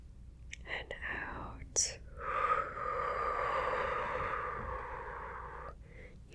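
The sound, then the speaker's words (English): A long, slow, deep breath drawn in and let out during a guided relaxation breathing exercise, a soft airy rush lasting several seconds, preceded by a few brief breathy puffs. “One more time, we're going to do a really, really deep breath, okay?”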